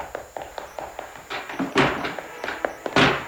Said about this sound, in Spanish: Sin embargo, retrocede, vuelve a cerrar la puerta y... ¡Se escapa, rayo!